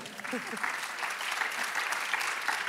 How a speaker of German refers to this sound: Applaus für diese so beiden.